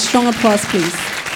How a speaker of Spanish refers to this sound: Puede darle ese fuerte aplauso, por favor?